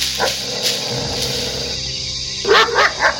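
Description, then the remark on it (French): On a remote islet in the Pacific late at night, a monkey barks in a quick run of three or four sharp, loud yaps near the end, after a stretch of steady background noise; no one is speaking. “Un singe qui aboie?”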